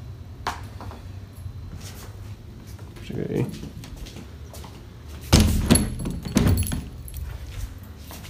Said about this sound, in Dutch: Oh, ik zal het raam even dicht doen schijnt het anders de plafondplaten er eventueel uitwaaien als het een beetje hard waait.